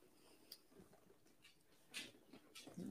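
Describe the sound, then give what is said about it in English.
Faint, irregular clicks and soft taps of a dog's paws moving across a floor, a few scattered steps over a quiet background with no talking. “yeah my dog's walking around. I'm sorry if you hear him.”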